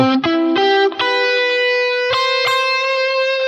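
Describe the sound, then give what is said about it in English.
A distorted electric guitar plays a quick arpeggio of several rising notes that ring together into a sustained, effect-laden tone, with a couple of brighter picked notes near the end. No voices. “Expanding Arpeggios”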